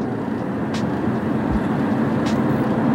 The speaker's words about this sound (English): Yeah, good old Hollywood. Just LA in general. Man, it is 8 after 8 o'clock and the traffic is still humming hard big time.